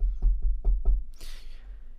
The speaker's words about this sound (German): ich klopfe noch mal kurz auf Holz, man weiß ja nie.